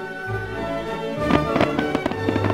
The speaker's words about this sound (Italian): Dopo la sfilata, all'improvviso, sul castello si alzano bagliori di fuoco. Si rievoca così il cannoneggiamento che nel 1809 segnò il definitivo declino della fortezza.